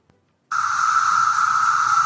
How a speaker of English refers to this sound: I actually pulled a little clip off of YouTube of a, what that sounds like when there's a million cicadas just going off.